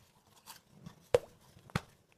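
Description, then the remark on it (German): Two sharp, dripping plops about half a second apart, the first with a short rising pitched blip, over a faint low rumble with no talking. “Das war Sollte dann. eigentlich ein Tropfengeräusch werden.”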